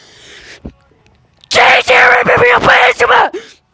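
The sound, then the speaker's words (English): A loud, harsh yell blasts into a phone microphone for about two seconds, distorted and clipping, after a quiet moment of faint background noise. “was really excited to yell into the microphone.”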